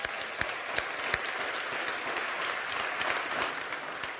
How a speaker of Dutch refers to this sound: En nu een applaus.